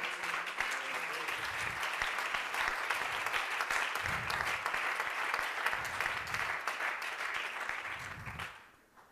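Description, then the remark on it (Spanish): An audience applauds steadily for about eight seconds, a dense, even crackle of many hands clapping with low murmurs underneath, before the applause quickly fades out at the end. “Ve si le va a aplaudir, hágalo con el corazón.”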